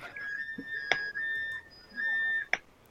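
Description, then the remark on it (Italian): An electronic alarm sounds in two long, steady high-pitched tones with a short gap between them, broken by a couple of sharp clicks, at moderate loudness with no talking. “C'è un allarme che esatto. suona ah, abbiamo, es- abbiamo esagerato.”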